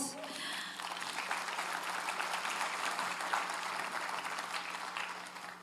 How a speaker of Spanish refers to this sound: Démosle un aplauso a Dios.